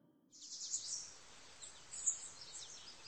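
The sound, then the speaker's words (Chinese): Birdsong in the woods on the hill behind a nursing home, on a fresh morning after heavy rain: a steady wash of bright, high-pitched chirps and twitters that starts after a brief silence and continues with a few louder calls, with no one speaking. “敬老院的后山更加幽静，树林里的鸟叫声显得格外清脆悦耳。”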